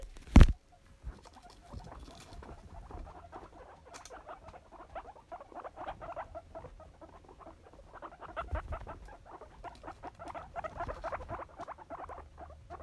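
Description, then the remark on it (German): Small pet rodents scurry and patter, running around and over a phone, a steady stream of quick light scratches and tiny footsteps that keeps going, with one sharp knock at the very start. “Und die sind ganz glücklich, wie ihr hören könnt vielleicht.”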